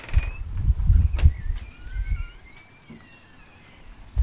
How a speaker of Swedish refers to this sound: Det är en fantastisk varm och skön dag det här och koltrasten kvittrar i träden runt omkring här.